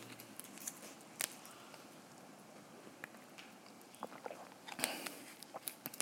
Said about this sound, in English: Um, me take a sip.